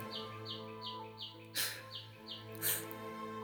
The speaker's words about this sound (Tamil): இந்த பறவையின் சத்தத்தை கேட்குற கூட நான் என்னோட பாட்காஸ்ட் நிறுத்துவேன் ஒவ்வொரு நொடியும் எனக்கு அந்த அழகான நிறும நிம்மதியை தரது